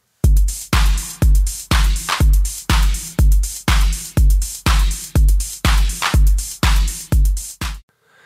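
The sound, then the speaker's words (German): A punchy electronic drum-machine beat in the style of an 808, with booming low kicks layered with crisp hits, repeating in a steady, even rhythm for several seconds before stopping. “und klicke mich da so durch und bleib dann so hängen bei so einem Teil 808 äh, äh, irgendwas und denke, wow, wow, das ist geil, das, das klingt so richtig oldschool, das drückt richtig.”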